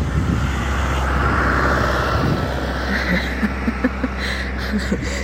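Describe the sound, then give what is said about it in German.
A tractor drives past with a steady, loud low engine rumble that swells and then eases, accompanied by a few faint clicks and knocks. “Und jetzt kommt schon wieder ein Trecker.”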